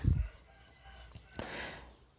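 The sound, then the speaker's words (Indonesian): A rooster crows in a single drawn-out call rising midway through after a brief low thump at the start, with faint farmyard background and no one speaking. “obrolan ini aku bawain pada jam setengah sepuluh pagi yang mana seharusnya ayam-ayam itu udah pada cari makan ya ini apa pada aduh kokok coba”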